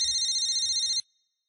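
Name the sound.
mobile phone ringing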